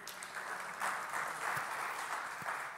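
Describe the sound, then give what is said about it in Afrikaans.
Sustained applause from a crowd for the young people under 18 who are standing up, a dense, steady wash of many hands clapping at once, moderately loud and continuous throughout with no talking over it. “Almal OK, gee vir hulle 'n lekker hande klap.”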